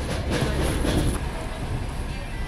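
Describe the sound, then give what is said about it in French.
A medical evacuation train fitted with hospital beds and tended by medics in green gowns rolls along the rails with a steady low rumble and a few faint rhythmic clacks early on. “Voilà ce que disait un des passagers de ces trains arpentés par des soignants en blouse verte.”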